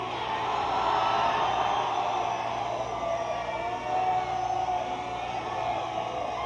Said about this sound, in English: We ask you to scream as if you're in hell. This is your sound check. Please scream as if you're in hell!